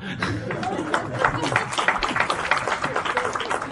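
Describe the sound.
An audience breaks into applause: dense, steady clapping sustained for several seconds at a fairly even loudness, with a murmur of voices mixed into the crowd noise.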